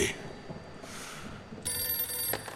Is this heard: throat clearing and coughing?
no